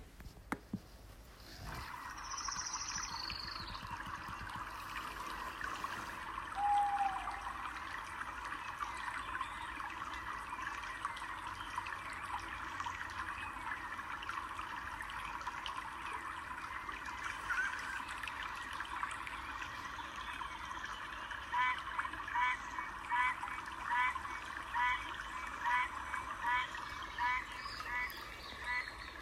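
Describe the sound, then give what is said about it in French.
Dense Amazon rainforest ambience with a steady wash of flowing water, layered with chirping frogs or insects and a few brief bird calls. It holds a constant level throughout, with no talking. “Euh, donc voilà, donc on va écouter quelques secondes ensemble cette petite euh, douce musique de la forêt amazonienne.”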